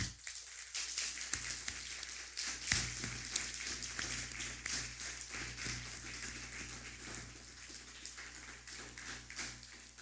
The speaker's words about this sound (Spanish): Levantemos un fuerte aplauso para el Eterno.